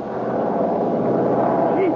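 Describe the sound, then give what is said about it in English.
A steady, loud airplane engine drone hums continuously through the whole stretch, a dense even roar with a throbbing tonal layer, from a plane in flight heading out over the ocean. “Two hours later, figures and me were on a plane heading out over the deep blue ocean.”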